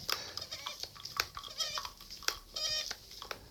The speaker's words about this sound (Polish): Nie wiem, czy wy to słyszycie, ale Słychać. już mi kawa siurka do kuksy.